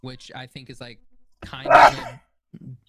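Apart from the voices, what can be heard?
sneeze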